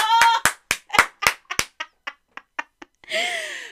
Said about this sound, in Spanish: ¡Un aplauso!